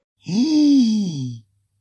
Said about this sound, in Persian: خمیازه کشیدن در حضور حضرت سلطان ان به دور است این را برایت قدقن میکنی.